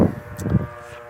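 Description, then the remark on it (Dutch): A loud truck horn blares in one sustained, steady blast, its brassy tone holding for just over a second with no voices over it. “Ik weet, niet of jullie dat hoorden, maar dat was echt een flinke toeter van de vrachtwagen.”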